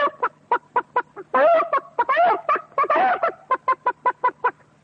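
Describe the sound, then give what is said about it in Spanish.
A voice imitates a whole henhouse of poultry in a farmyard waking up on a hot, hazy afternoon: a rapid series of short, clucking bursts broken by longer, squawking cackles, loud and steady with no talk. “Yo sé hacer el canto del gallo, que es una cosa que casi todo el mundo sabe, pero estas otras cosas más sencillas del corral, por ejemplo, este despertar en la tarde caliginosa de todo el gallinero.”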